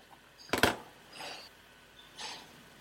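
A sharp metallic click and rattle of a key turning, used to simulate the sound of unlocking doors, followed by two softer scraping clicks.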